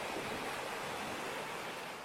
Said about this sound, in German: So, wir hören Meeresrauschen.